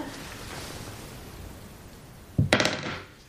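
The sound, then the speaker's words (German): After a stretch of quiet hiss, dice are rolled, landing on two: a sudden sharp knock followed by a quick, rattling cluster of clicks and taps that dies away within half a second. “Noch einmal würfeln bitte.”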